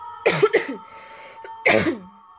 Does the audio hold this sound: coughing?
yes